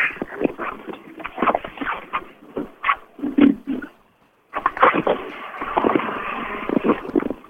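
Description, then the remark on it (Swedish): Rally cars roar along the stage in loud, surging bursts of engine noise, rising and falling repeatedly, with a brief quiet gap before the revving starts up again. “Men vi hör att det är bilar ute på sträckan så att...”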